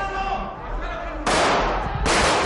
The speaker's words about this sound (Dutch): Met zijn kielzog honderden agenten van de Guardia Civil. En ze schreeuwen en lossen ehm, geweerschoten in het parlement.